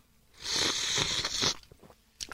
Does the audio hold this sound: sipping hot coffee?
yes